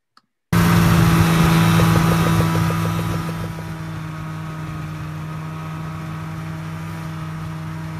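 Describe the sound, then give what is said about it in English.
A snowmobile engine starts up abruptly and drones steadily with a low, buzzing pitch as it tows a person on a dog sled behind it. It is loud at first, then settles slightly quieter and holds a constant hum, with no voices. “brought him along with us uh, with our snow machines and we pulled him behind the snow machine with on his dog sled so i've got a little video clip of that it, it was a really fun day”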